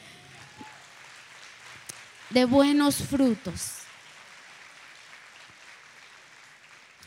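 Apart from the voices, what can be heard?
audience applause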